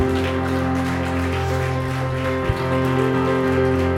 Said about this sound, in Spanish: Y dele una vez más un fuerte aplauso al Espíritu Santo.